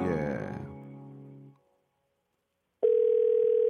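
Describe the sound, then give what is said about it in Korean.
A low, droning voiced sound fades into a second of silence, then a steady, single-pitched telephone ringing tone starts abruptly as a KBS radio show calls a listener, holding at an even, fairly loud level. “전화 한번 걸어보겠습니다. 자, 걸어주세요.”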